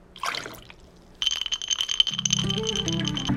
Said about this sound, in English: glass, ice, pour.